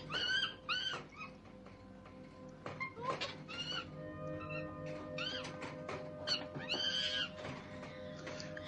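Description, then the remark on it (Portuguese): A voice imitates an ape with a series of loud, high-pitched hoots and screechy cries in uneven bursts over a steady low hum, with no ordinary speech. “cara, queria falar que o Andy Serkis está muito bem no papel desse macaco, cara.”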